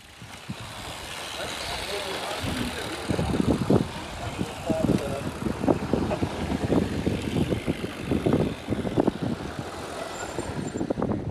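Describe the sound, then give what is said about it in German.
Cars rumble on the rough cobbled Bekestraat, with steady engine noise and constant rattling jolts, while indistinct voices murmur underneath; recorded from a rider's jersey while cycling up the street behind two cars and a slow cyclist. “Ich habe versucht, Atmosphäre aus dem Trikot aufzunehmen. Vor mir waren zwei Autos und davor ein Fahrradfahrer, der ziemlich langsam war.”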